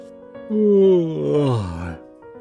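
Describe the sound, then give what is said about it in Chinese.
A voice imitates Mr. Hedgehog's long, drawn-out yawn lasting about a second and a half, rising slightly then sliding down in pitch into a groaning finish, heard alone. “过了很长的时间，刺猬先生打着哈欠的声音传了出来。”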